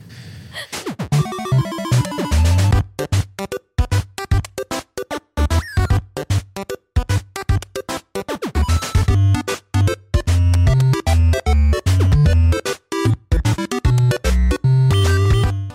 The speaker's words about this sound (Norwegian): Det dere hørte lyden av der, kjære, kjære lyttere, det var lyden av menymusikken til eh, den nydelige lille maskina eh, Nest Mini.